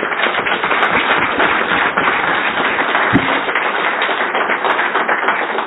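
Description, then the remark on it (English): An audience at a twelve-step recovery talk applauds a man for a courageous act. A dense, crackling wash of many hands clapping steadily for several seconds at an even, fairly loud level, with no voices over it. “He's the one especially gets the applaud.”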